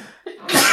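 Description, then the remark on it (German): A single sneeze: a quick breath in, then a sharp, loud, hissing burst of air that trails off. No one speaks. “Gesundheit. Ui. Das bleibt bestimmt drin.”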